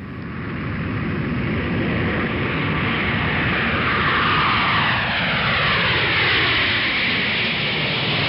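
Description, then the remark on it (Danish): A steady, loud airplane engine drone fills the whole clip, a broad roaring hum with a faint sweeping whine rising through it, no voices present. “Jeg frygter turbulens i en flyvemaskine.”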